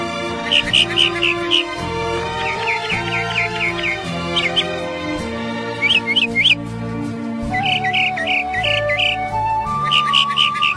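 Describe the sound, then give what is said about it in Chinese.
Forest birdsong: quick, high twittering chirps in short repeated bursts of four or five notes, recurring every second or two over a steady, lower tonal background. “乞丐带着公主。走进一片大森林，”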